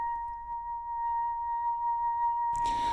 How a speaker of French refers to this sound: C'est sa musique que vous pouvez entendre en fond.